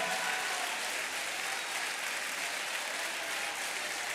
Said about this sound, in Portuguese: Glorifique até perder a voz. Aplauda, adore. Aleluia!